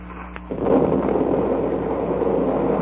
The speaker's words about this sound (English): That did it. Look at all those pieces of wood and dead fish coming up to the surface. Yeah. That explosion must have ripped the wreck wide open.